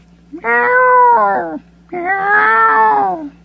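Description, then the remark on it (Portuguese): An injured kitten, found near a school and carried in someone's arms, meows twice, each cry long, drawn-out and plaintive, loud, with a short pause between them and a faint low hum underneath. “apareceu em casa com um gatinho todo machucado ao colo.”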